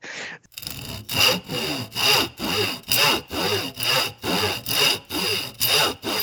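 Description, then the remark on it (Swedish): A voice imitates very slow sawing with a steady series of about eleven raspy back-and-forth strokes, fairly loud, each stroke rising and fading in an even rhythm with no talking. “De skickar upp den här lilla lien precis lagom ovanför hennes huvud och sen ja, är det den långsammaste sågningen. Nej, det är inte ett chop. Det är snarare ett”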